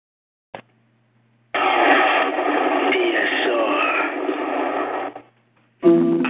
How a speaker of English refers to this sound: Well, we're gonna play one of your tracks, and we're gonna let the audience hear y'all get out in this building, in the DSR building.